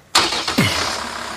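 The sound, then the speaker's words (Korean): A small truck's engine cranks with a sudden loud burst, catches with a rising whine, then settles into a steady, rumbling idle at the edge of a parking lot. No one speaks. “트럭에 올라타며 엄마에게 물었다.”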